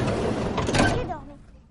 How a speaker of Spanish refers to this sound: Abre la puerta lateral de una furgoneta.